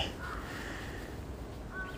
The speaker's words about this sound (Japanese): 青空も広がってますね熊もあるけどね気持ちいい朝ですね静かな朝ですね風もなく鳥が鳴いて穏やかな朝あー気持ちいい気持ちいいですねはい冬の朝です北海道の朝です札幌の朝です